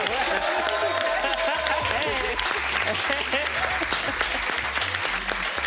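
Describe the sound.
Steady audience applause fills the whole stretch, a dense, continuous patter of many hands clapping at a strong, even level, with a low rhythmic hum and faint voices mixed underneath.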